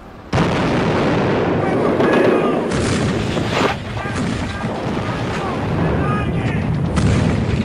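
A dense, continuous roar of battle: falling bombs explode in heavy booms while defenders fire weapons of many calibers, including 7.62 FAL rifles, in overlapping bursts of gunfire throughout, loud, with faint voices buried underneath the din.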